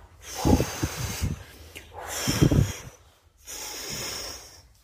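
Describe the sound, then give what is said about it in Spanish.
A voice forcefully imitates hard blowing breaths, three long gusty puffs in a row with rough, noisy bursts, loud, with no words spoken. “Tomó todo el aire que pudo y sin esperar a que la chanchita saliera, sopló y gritó más fuerte que nunca.”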